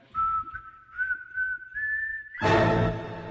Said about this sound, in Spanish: así que me voy silbando bajito